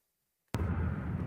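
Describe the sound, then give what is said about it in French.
After a stretch of silence, a sudden heavy boom of cannon fire or a bomb strikes, then a dull, deep rumble rolls on steadily until the end, heard among sandy paths and forest at the site of the Nova music festival. “Des chemins ensablés, un paysage de forêt, des bruits sourds de canons et de bombes.”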